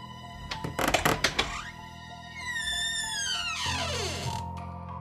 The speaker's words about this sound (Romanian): Am deschis ușa grea de stejar care produsese un scârțit atât de puternic, încât putea trezi și morții.